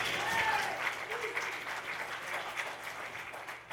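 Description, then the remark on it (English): Steady audience applause fills the whole span, a dense wash of many hands clapping at an even level with no pauses, a few faint voices and whistles mixed in. “Let's hear it from Monster Kid Radio, a wonderful podcast. Let's hear it, guys.”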